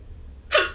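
A single sharp hiccup bursts out, a quick breathy catch that cuts off almost as soon as it starts, following a moment of near quiet.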